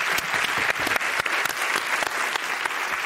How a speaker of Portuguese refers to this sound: Pode aplaudir, né?